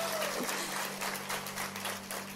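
A crowd claps steadily, a dense wash of many hands applauding together at an even level for a couple of seconds, with a faint low hum underneath; the audience is applauding two volunteers from the Montevideo campus.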